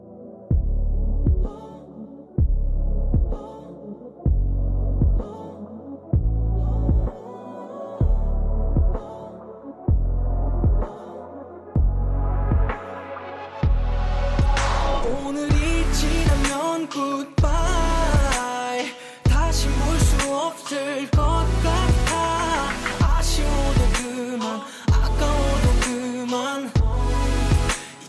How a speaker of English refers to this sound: And the next song I want to talk about is a song that I am almost 100% sure you have not heard before. It's um, uh, only 49 people have heard this.